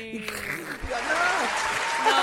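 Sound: applause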